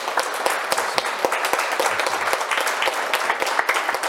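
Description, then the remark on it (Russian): A crowd applauds steadily, dense overlapping claps forming a continuous loud wash of sound with sharp individual hand claps standing out throughout. “Я спасибо за ваши овации.”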